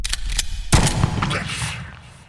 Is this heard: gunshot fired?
yes